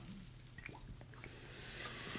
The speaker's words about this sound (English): I'm gonna have a sip of water before we start from Red Robin's.